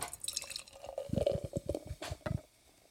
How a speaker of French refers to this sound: Elle est mousseuse. Elle est moussue. Vous entendez l'effervescence